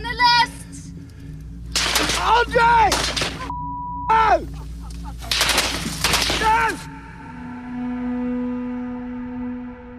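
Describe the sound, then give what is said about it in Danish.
Several loud bursts of rapid gunfire crack out in quick succession as a British news crew filming comes under fire in early March, mixed with people shouting and groaning in distress, before dying away into a low steady hum. “Det britiske medie Sky News lykkes med at filme, da deres folk bliver beskudt i begyndelsen af marts.”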